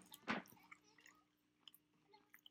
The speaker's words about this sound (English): Live TV. Actual chewing.